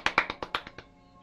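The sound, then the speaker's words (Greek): A brief burst of hand clapping, about seven sharp claps in a quick, even rhythm, loud at first and growing fainter before trailing off into quiet. No cheering voices are evident. “Αυτά θέλω να ακούω, έτσι, χειροκροτήματα και γιαχές.”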